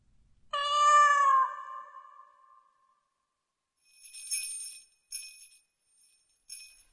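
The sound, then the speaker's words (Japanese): A single loud, drawn-out cat meow sliding downward in pitch, followed by a few brief, light bell-like jingles with quiet gaps between them. The cat is a pet kept at a house. “なので、陰陽師の血を引く瞬には、にゃーっと聞こえてしまう猫の声が、会話として聞こえてしまったのである。”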